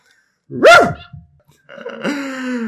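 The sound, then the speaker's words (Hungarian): A person lets out a single loud bark imitating a dog, followed after a short pause by a longer, wavering voiced sound. “Neked ugatni kéne”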